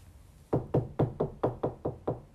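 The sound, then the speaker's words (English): Seven quick knocks on wood in a steady, even rhythm, each a sharp, hollow rap that fades fast, moderately loud with no voices. “that's knocking on wood.”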